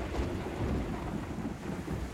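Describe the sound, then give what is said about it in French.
A stormy sea roars steadily, with deep rumbling thunder and rushing, rain-like noise filling the scene at a constant, fairly loud level. No one speaks. “L'eau, les immenses étendues d'eau, ses flux et ses reflux, ses vagues, ses tumultes, ses tempêtes.”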